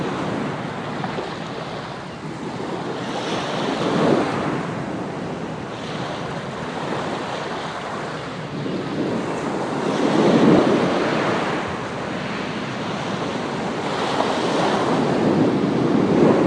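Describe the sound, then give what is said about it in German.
Ocean waves wash steadily onto a beach, each surge swelling into a loud, hissing crash every few seconds before receding. A constant roar of surf and light wind fills the gaps, with no voices. “der rhythmische Schlag der Wellen an den Strand lassen meine Atmung und mein Herz zur Ruhe kommen.”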